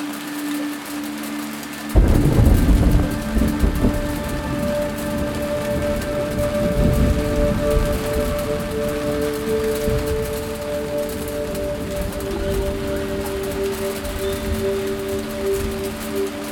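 A thunderstorm in the Himalaya in India rolls in after a brief quiet start, with deep rumbling thunder and steady rain hiss continuing throughout, layered over a soft sustained musical drone. No one speaks.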